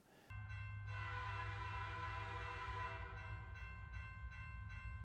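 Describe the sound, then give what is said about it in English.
The George Bush 4141 locomotive rumbles steadily while its loud, sustained horn blares for a couple of seconds, then fades back to the heavy engine drone and clatter of the moving train. “so there's the train which is all the parts and the locomotive which is the thing that was named after”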